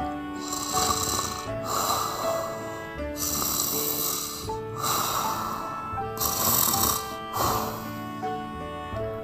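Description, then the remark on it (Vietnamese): A voice mimics a lamb snoring, with several drawn-out, rasping snore breaths in a steady rhythm, fairly loud, with no talking. “bạn cừu đếm xong thì lăn ra ngủ”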